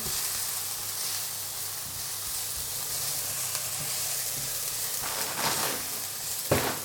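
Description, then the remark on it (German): Small diced onions sizzle steadily in a frying pan turned down to lower heat so they turn translucent without burning, a continuous crackling hiss, with a couple of brief louder scrapes or stirs near the end. No one speaks. “So, die Pfanne ein bisschen runterstellen. Die sollen jetzt ruhig ein bisschen glasig werden und nicht gleich verbrennen.”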